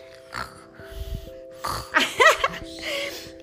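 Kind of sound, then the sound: vocal imitation, imitated snoring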